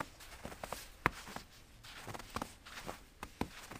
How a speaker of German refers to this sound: Wir laufen in Richtung Fit. Das Knirschen des Schnees unter unseren Schuhsohlen durchbricht die Stille des Morgens.